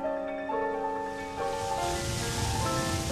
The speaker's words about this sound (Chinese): 天色暗了，海洋开始变得不平静，风也越来越大，还下起大雨。